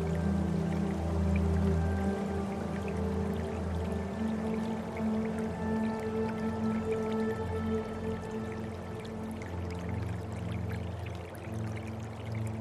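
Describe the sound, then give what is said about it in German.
Gentle, continuous babbling of a small river at the end of a street on a dark, still night with a light sea breeze, a soft steady trickle and splash with faint liquid gurgles, holding an even, low level throughout with no voices. “Mittlerweile ist sein leises Plätschern zu hören.”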